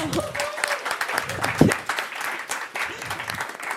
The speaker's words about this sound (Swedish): Kan vi få en applåd?